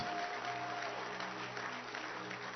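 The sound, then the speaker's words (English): An audience claps steadily, a dense, continuous patter of many hands at an even loudness for a couple of seconds, with a faint steady tone briefly sounding beneath it. “Can you clap your hands”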